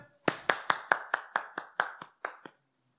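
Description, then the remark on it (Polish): An audience claps: a run of about ten sharp hand claps in a quick, steady rhythm, loud, stopping abruptly after a couple of seconds with no talking. “Bóg mówi: dzisiaj możesz klaskać.”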